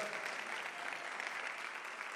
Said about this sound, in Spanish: Y la iglesia del Señor dice, Dale ese aplauso fuerte.